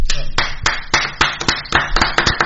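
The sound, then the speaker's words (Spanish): Steady hand clapping in applause of a brave working mother's story sent in by a listener, about ten sharp claps in a fairly even rhythm, loud and crisp over a faint background murmur. “Sí, la aplaudo con a rabiar, la aplaudo.”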